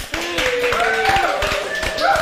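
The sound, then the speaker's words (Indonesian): A few people clap their hands in a quick, steady rhythm while voices call out and chatter over the clapping, applauding an employee of Firman who has worked there for 10 years. “Tepuk tangan dulu.”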